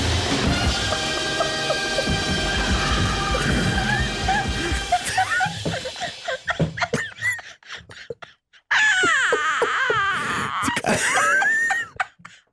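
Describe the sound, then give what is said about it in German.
After a stretch of dense, noisy background, a woman breaks into loud sobbing with wavering wails and shaky gasping breaths, too overcome to speak, pausing briefly before another burst of crying. “… kann nicht mehr sprechen. Ich kann nur mehr weinen.”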